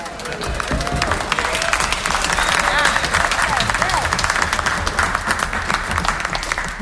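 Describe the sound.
A crowd applauds a musician for a song, dense clapping filling the whole stretch at a loud, even level, with some murmured voices and faint cheers mixed into the noise.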